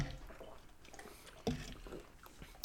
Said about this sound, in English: Um, we got our uh, drinks ready. And, and uh, we're about to take this final sip. Yep. All Cheers, right, guys. guys. Cheers. Cheers.